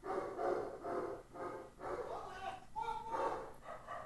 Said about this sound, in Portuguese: Agora os cachorros vão ficar gritando aí. Cachorrada, por favor. Para aí, eu preciso gravar aqui, cachorrada.